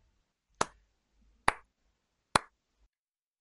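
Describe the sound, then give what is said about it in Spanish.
Three sharp, loud hand claps spaced evenly about a second apart, each a crisp smack with a short decay, made to sync recordings; otherwise quiet with no talking. “Vamos, ya. voy a aplaudir.”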